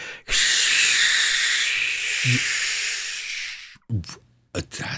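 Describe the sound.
A voice imitates white noise with one long, steady, breathy hiss lasting a few seconds, loud, followed by a couple of short vocal sounds.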